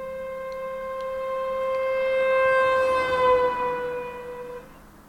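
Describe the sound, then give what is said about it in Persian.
A long, continuous car horn blares loudly and steadily for about four seconds over low street rumble, its pitch sagging slightly before it cuts off. “دوباره سر و صدا فریاد و بوغ ممتد ماشین ها”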